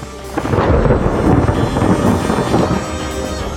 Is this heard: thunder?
yes